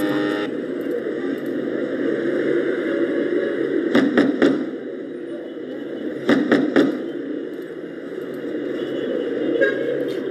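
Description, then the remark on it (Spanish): A motorcycle engine rumbles steadily as it parks in front of a house door, then two quick bursts of three sharp steps sound over it as someone walks up toward the door. “Tengo escucha la motocicleta parquear delante de la puerta y pasos acercándose a la misma.”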